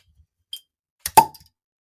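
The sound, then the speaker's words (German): A beer bottle being opened: a small click, then a sharp pop as the cap comes off, with a brief metallic ring trailing after. No one speaks. “Ähm, ja, lasst uns doch direkt ins Abenteuer starten, aber erstmal muss ich mal ein Bier aufmachen.”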